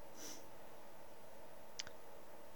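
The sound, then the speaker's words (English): A voice imitates the clicking of rolling bones to describe the Radobaan: a soft, brief rattling click near the start, then one sharp, crisp click later, both fairly quiet against a faint background hum. “Rolling bones, tar.”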